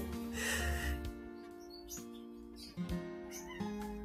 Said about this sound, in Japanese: 今猫がね、にゃんにゃん言ってるんですけれど、うちは妹と猫と鳥がいます。